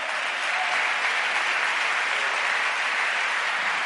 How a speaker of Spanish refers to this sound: Ese aplauso fuerte al Señor.